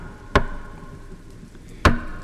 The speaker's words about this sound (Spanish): Así que en lugar de intentar abrir, sin más llamé a la puerta.